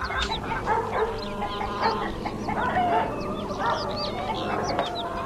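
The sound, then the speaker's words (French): Several chickens cluck and chatter continuously, overlapping short calls, with a busy farmyard background and no one speaking. “Il la suit, cour de ferme, avec des poules.”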